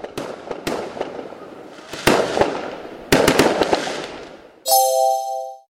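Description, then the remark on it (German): Fireworks set off for the Diwali festival burst in a loud, irregular series of sharp bangs and crackles, with several overlapping blasts, ending in a sustained high whistling tone. “Darum schmücken die Menschen ihre Häuser und Straßen auch mit Lichterketten und brennen hell leuchtende Feuerwerke ab.”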